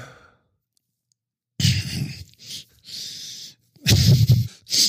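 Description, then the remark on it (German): Someone yawns after a moment of silence: drawn-out, breathy exhalations with a low voiced groan, broken into a few stretched bursts that swell and fade. “Du, du gähnst doch die ganze Zeit.”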